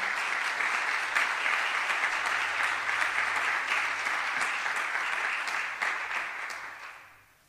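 An audience claps loudly in a dense, sustained burst of applause with crisp individual hand claps scattered through it, holding steady for several seconds before fading out at the end. The applause is for a person called to the front to be thanked.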